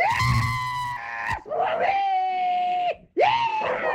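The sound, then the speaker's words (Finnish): An excited dog howls in three long, drawn-out cries, each holding a steady high pitch before sliding down, loud and clear with short breaks between. “Koirakin innostuu. Koirakin sekos taustalla.”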